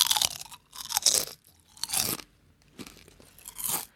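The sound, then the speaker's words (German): Loud crunching of potato chips being chewed, with about five crisp bursts at a steady chewing rhythm and short quiet gaps between them. No one speaks. “Denkst du, das ist eine gute Sache, wenn man Chips im Podcast isst?”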